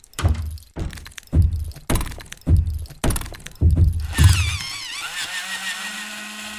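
Doors thump shut over and over, about seven heavy low thuds in a steady rhythm, followed by a grinding, whirring mechanical sound that fades into a low hum.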